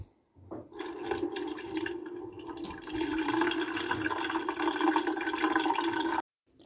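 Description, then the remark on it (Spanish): Water runs steadily into a glass in a kitchen for about six seconds, fairly loud, with a bright splashing rush, then cuts off abruptly. No one speaks. “Para tomar agua.”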